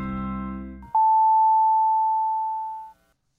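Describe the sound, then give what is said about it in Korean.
A radio time signal for 6:30, announced as brought by the LG Cord Zero A9 compressor vacuum cleaner: a short burst of music cuts off, followed by one long, steady, high electronic beep held for about two seconds before it stops, leaving silence. “또는 청소기 하나로 먼지 흡입부터 물걸레 청소까지 올인원 타워로 충전부터 먼지통 자동 비움 보관까지 세상의 청소를 또 한 번 혁신한 LG 코드 제로 A9 컴프레서가 6시 30분을 알려드립니다.”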